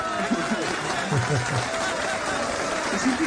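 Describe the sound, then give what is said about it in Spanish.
A stretch of applause sound effect: dense, steady clapping from many hands filling the whole clip at an even level, with a faint crowd murmur mixed underneath. “ahí van aplausos, ahí van aplausos.”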